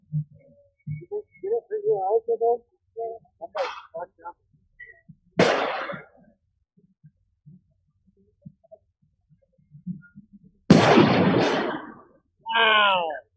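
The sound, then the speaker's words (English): Two sharp, loud blasts go off about five seconds apart, each trailing into a brief hissing, rumbling decay, like concussion grenades exploding at a street protest, with people talking before and after. “I think that was a concussion grenade.”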